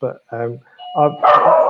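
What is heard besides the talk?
dog barking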